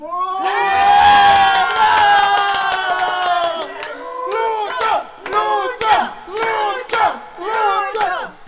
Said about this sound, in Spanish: Eh, eh, no pues, compañeros. No tienen que vitorear ahí. Eh, mal, mal han ensayado.